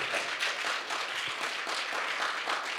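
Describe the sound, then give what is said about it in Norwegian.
Steady audience applause for the worship team, many hands clapping in a dense, continuous patter at a fairly even loudness for the whole stretch, with no voices standing out. “Lovsangsteam i dag. Kamidien, syk applaus?”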